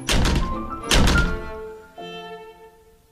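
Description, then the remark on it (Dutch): A house door slams shut loudly as Beethoven storms out: two heavy, booming thuds in quick succession, followed by a lingering resonant ring that fades as a soft sustained tone comes in. No one speaks. “Wanneer die driftkop voor de zoveelste keer het huis uitstormt en daarbij de deur luid achter zich dichtslaat.”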